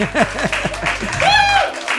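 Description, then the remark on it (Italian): A show's audience applauds and cheers loudly like a stadium crowd, with a steady wash of clapping under shouting voices and a sustained high whoop rising out of the crowd midway through. “tifo da stadio da parte del nostro pubblico, grazie.”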